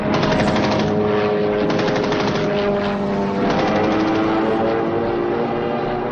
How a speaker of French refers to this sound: Les duels aériens sont une chasse à l'homme implacable. Les pilotes font toutes sortes d'acrobaties pour se placer dans le dos de l'adversaire et l'abattre à la mitrailleuse à bout portant.